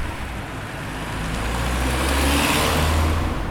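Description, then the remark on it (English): A car drives along a road on the way home, with a steady low engine rumble and tyre noise, growing slightly louder and fuller partway through, with no voices. “In the car on the way home, the atmosphere was understandably uneasy.”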